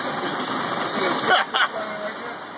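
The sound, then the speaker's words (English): A car engine hums steadily from inside a moving car driving past the world's largest stove, a state fair stove burning after a lightning strike. A constant rumble with road noise, briefly interrupted by a couple of short muffled bumps or indistinct voices. “Here is YouTube footage recorded by some folks who happened to drive by in their car.”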